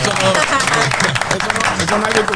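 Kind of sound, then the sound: crowd, applause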